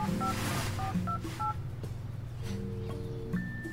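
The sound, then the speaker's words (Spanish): Telephone keypad dialing tones as someone calls their mother again: a rapid series of short paired beeps in quick succession over a low steady hum, followed by a longer held tone near the end. “Voy a hablarle otra vez.”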